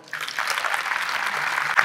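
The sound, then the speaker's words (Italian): A crowd breaks into steady applause for the speaker's family, present for the first time: a dense, even patter of many hands clapping that holds at a constant level for a couple of seconds with no voices standing out. “siamo una famiglia meravigliosa, peraltro qui per la prima volta, se vi posso chiedere un applauso”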